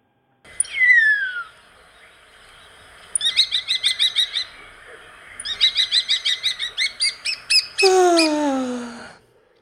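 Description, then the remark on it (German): A common starling sings in a garden before sunrise, mixing long falling whistles with bursts of rapid clicking, rattling notes, then ending on another sliding whistle, with no other sounds around it. “Das ist ein Star. Der Star singt immer schon eine Viertelstunde, bevor die Sonne aufgeht.”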